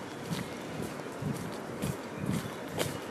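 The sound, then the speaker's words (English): Steady crunchy footsteps on gravel, about six evenly paced steps, each with a gritty scrunch over a faint, constant background hiss, from a person walking on the way to Saltram. “Crunchy, listen to this.”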